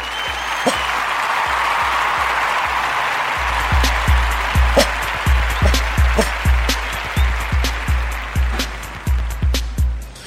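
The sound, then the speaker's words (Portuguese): A burst of crowd applause for Frangolino, followed by steady rhythmic clapping with dull thumps on each beat, fairly loud for about ten seconds. “Salva de palmas para Frangolino!”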